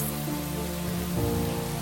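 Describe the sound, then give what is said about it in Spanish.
Light drizzle patters steadily and evenly throughout, a soft continuous hiss of fine rain, with low sustained musical tones humming underneath and no voices. “Justo el día que sembró los granos de maíz de diferentes colores, la naturaleza le bendijo su parcela porque le envió una llovizna que le remojó la tierra en donde estaban las semillas ya sembradas.”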